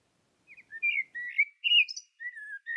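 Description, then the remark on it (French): A common blackbird sings a string of clear, fluty warbling phrases with brief gaps between them, distinct against a quiet background with no talking. “On a eu un merle qui nous a dit au revoir.”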